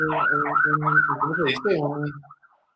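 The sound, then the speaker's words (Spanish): An ambulance siren wails as it passes outside, its pitch sweeping up and down at moderate loudness, while a person keeps talking over it; the sound fades out at the end. “¿Cuántas ambulancias van a pasar?”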